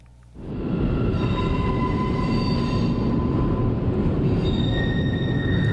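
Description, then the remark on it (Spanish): A metro train roars in, its loud rumble swelling within half a second and holding steady, with thin, sustained high-pitched wheel squeals whining over the din throughout. No voices are heard. “Carlos Monsiváis lo dijo el metro es por un lado el milagro del acomodo, el, eh, verdadero, milagro del cupo, debía haber un santo señor del cupo que presidiese el metro.”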